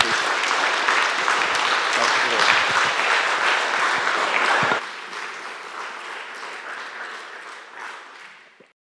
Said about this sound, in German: Mit uns, das ist ein Applaus wert für den Novice.